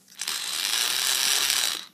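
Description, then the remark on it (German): A toy dog's walking motor, set off by pressing the left button on a pink two-button controller on a cable, whirs steadily for about a second and a half, a bright, buzzy mechanical hum that starts and stops abruptly, with no one talking. “Und wenn ich den linken Knopf drücke, dann geht der.”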